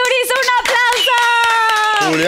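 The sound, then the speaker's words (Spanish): A burst of audience applause with scattered claps running throughout, mixed with loud, sustained whoops and cheering voices held on high pitches, welcoming two musician brothers as guests on the Pinky Promise show. “un aplauso.”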